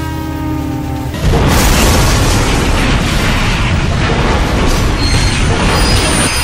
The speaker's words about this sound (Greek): Αυτό το μπαμ που βάλατε με το τρένο.